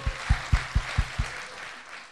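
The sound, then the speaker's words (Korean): Audience applause in thanks to the show's sponsors, with about six strong, evenly spaced claps standing out over a steady wash of crowd noise, which thins and fades away in the final moments. “자, 이 모든 분들 대박 나시라고 여러분 감사의 박수 한번 부탁드립니다.”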